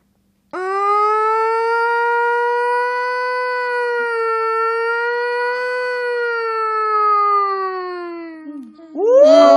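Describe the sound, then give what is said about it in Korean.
A voice imitates a siren with the mouth, holding one loud, steady, harmonic-rich wail for about eight seconds with a slight wavering dip, before it breaks off into a brief rising vocal sweep. “어, 입으로 제가 사이렌 소리를 낼 수 있어요.”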